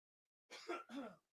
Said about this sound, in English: Oh, that's the cough. Yeah, there's wow. a yeah, I got a little cough button, uh, but it def, the deflects.